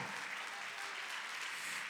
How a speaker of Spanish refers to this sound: Aleluya. Denle fuerte aplauso Señor con el corazón.